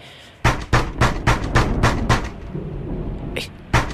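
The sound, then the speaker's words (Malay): Loud, sharp knocking on a door at night, with cold wind and rain outside: a quick, evenly spaced run of about seven raps, then a pause before two more isolated knocks. “Siapa pula ketuk pintu malam-malam ni?”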